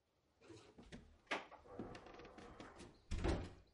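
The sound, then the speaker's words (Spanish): The door of a room with a large fireplace is pushed shut with a couple of soft knocks and rattles, ending in a firm thud as it closes; no one speaks. “Cierra la puerta y camina hasta un sillón que está junto a una ventana.”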